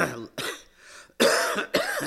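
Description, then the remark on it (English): A man coughs in a short burst of four harsh, throaty hacks, with brief raspy pauses between them and no talking. “not bad, I went three minutes before I started coughing.”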